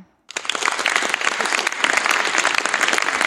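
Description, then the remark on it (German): Sustained applause from an audience voting for 'Feuerwehr' (fire brigade) over 'Feuermagierin' (fire sorceress) begins abruptly after a brief silence and continues steadily, loud and dense, with a few whistles mixed into the clapping. “Okay, es gab ein paar Pfiffe für die Feuerwehr, so also Feuerwehr hat gewonnen, glaube ich.”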